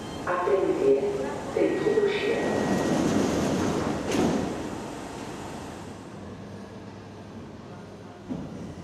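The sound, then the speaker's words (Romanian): A metro train rumbles through a station, its whine and brief squeal rising over faint murmured voices, with a sharp clunk midway before the noise gradually fades into the background. “Ești la metrou și vezi o fată slabă în șlapi.”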